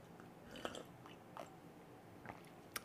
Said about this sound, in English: Oh my god, I need to take a sip of tea.